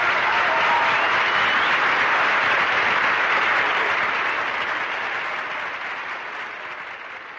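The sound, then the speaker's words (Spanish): A crowd applauds steadily after a concert performance, a dense wash of many hands clapping that holds loud for several seconds before gradually tapering off. No one speaks. “Las miradas, los aplausos y la emoción en el aire hacían mágica esa velada.”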